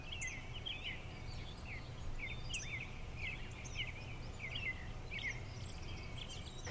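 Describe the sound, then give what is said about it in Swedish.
Several birds chirp and twitter in quick, repeated bursts throughout, over a low steady background hum. No one speaks. “Du bara sitter här och njuter av lugnet och solen, fåglarnas kvitter.”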